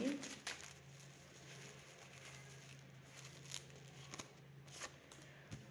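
Cards being drawn and shuffled as more cards are pulled in a card reading about finances: soft papery rustles and a few crisp flicks over a low steady hum, ending with a sharper slap of cards.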